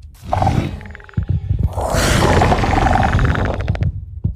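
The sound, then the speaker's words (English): A Warden monster in a video game lets out a loud roar as it is spawned in: a rumbling growl that swells into a long, gritty bellow lasting a few seconds, with no talking over it. “Warden. Oh, that's some nice sound right there. It just spawns that in as soon as it's like that.”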